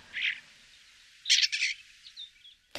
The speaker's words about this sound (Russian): Это у нас э, скворец, вот, э, который можно встретить совершенно это спокойно в Москве. Это самый обычный, да, самый обычный обыкновенный скворец. Они могут издавать разные звуки.